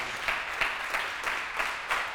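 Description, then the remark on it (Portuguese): An audience applauds steadily for seeking God, the dense wash of many hands swelling in a regular pulse about three times a second, like rhythmic group clapping. There are no voices over it. “Dá um aplauso aí.”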